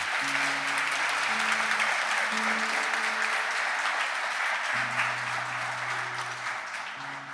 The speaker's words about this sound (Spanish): Vamos a darles un aplauso a los que hicieron esta decisión.